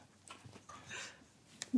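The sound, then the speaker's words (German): A dog sniffs around new guests: a few short, breathy snuffles and soft scuffling, then a brief low murmur at the very end. “also nur, dass ihr wisst, wir haben ja unseren Hund dabei ja. und der freut sich natürlich immer über neue Gäste und ist jetzt äh, am Beschnuppern.”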